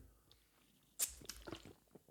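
A quiet sip of water: a brief wet slurp followed by a few soft swallowing and mouth sounds, with no talking.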